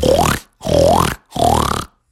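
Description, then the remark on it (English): Three loud, evenly spaced pig grunts from three muddy pigs in a pig pen, each about half a second long with a rough, throaty tone that bends upward in pitch. There is no talking. “There was three muddy pigs in there.”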